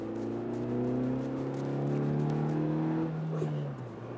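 A car engine accelerates with a loud, steady droning hum whose pitch climbs gradually over about three seconds as the rear wheel grips and the car reaches 40, then drops abruptly as the revs fall away near the end.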